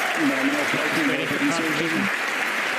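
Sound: crowd cheering and applauding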